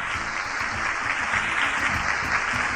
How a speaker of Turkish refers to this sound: Bravo. Sizleri şöyle kocaman bir alkışlayalım bakalım. Alkışlayalım.